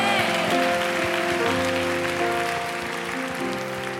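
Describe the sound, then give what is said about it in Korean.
An audience at Oryun Church applauds in thanks and glory to the Lord during a new life festival service, a dense, steady wash of clapping that holds for several seconds, with sustained musical tones playing underneath, easing off slightly toward the end. “그리고 이 새 생명 축제를 받으시는 우리 주님께도요 더 감사와 영광의 박수 올려드립시다.”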